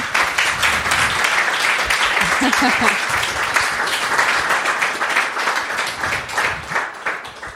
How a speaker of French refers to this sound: Eh bien, ouais, bravo, on peut déjà les applaudir.